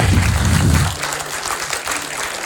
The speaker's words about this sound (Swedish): Så, jag tycker vi ger dem en stor applåd.